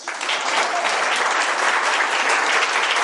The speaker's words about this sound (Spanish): Y un aplauso para nosotros.